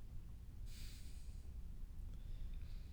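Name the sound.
imitated snoring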